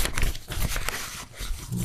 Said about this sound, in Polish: Słychać te kartki, tak, tam to... powiew wiedzy.